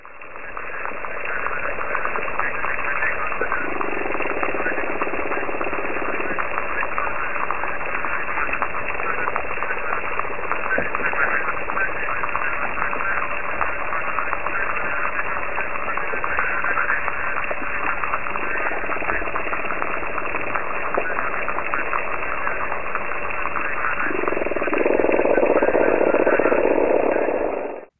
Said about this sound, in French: Eh ben, je propose qu'on écoute euh, ce paysage sonore de crevettes, d'invertébrés, de petits poissons.